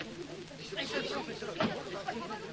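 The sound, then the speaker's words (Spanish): A crowd murmurs and chatters outdoors, many overlapping voices blending into a steady, moderately loud hubbub with no single speaker standing out, as Professor Burman makes his way through it. “Jacinto se asoma y lo ve abriéndose paso entre la multitud.”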